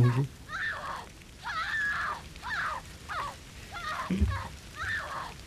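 A series of about seven shrill, wavering squeals from holy water in a video game repeats at a steady pace over a faint watery hiss, with a brief low thud near the end.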